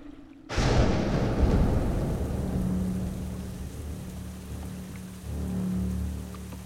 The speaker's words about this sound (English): The keeper rode as fast as he could as he noticed the skies becoming more menacing looking. Suddenly, the clouds broke and the rain came.